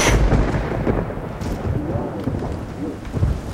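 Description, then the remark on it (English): A thunderstorm rages with a deep rumble of thunder over steady, heavy rain, the low booming swelling at the start and again near the end, loud with no voices. “Just look at that nasty storm, Oliver.”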